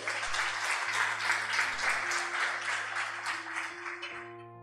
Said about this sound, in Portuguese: Pode aplaudir mesmo a ele.